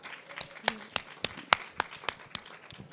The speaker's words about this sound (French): On applaudit. Ouais, bravo. Bravo.